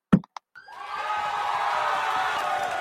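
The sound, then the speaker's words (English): Two sharp claps ring out, then a loud burst of crowd cheering and whooping swells in and holds steady, a canned hand clap sound effect set off by a donation, with no one talking. “So to Wazalewski, to Baby Girl for doing a donation of a hand clap.”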